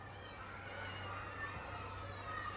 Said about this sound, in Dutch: Aan de overkant is een kleuterschool. Vanaf de binnenplaats hoor je de vrolijke stemmen van spelende kinderen.